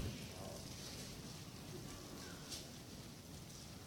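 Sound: audience turning Bible pages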